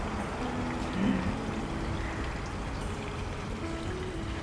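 Water runs steadily from a tap, a continuous hissing splash at moderate volume with no pauses, heard close by and with no voices over it.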